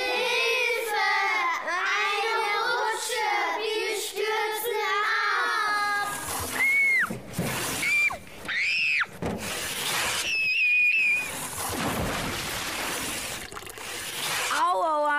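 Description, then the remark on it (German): Water sloshes and splashes loudly and steadily through the second half in an underground lake inside a pyramid, with high squealing voices over it at the start and brief whistling tones in between. “Hier steht das Wasser ziemlich hoch. Wie kommt denn ein unterirdischer See in diese Pyramide?”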